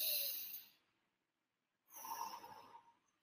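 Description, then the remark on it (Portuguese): A deep, airy breath drawn in, a brief pause of silence, then a longer, steady, calm exhale through the mouth, both soft and unaccompanied by speech, as in a breathing exercise for anxiety. “Então, quando a gente respira na ansiedade, né, em picos de ansiedade, mais profundamente, né, inspira”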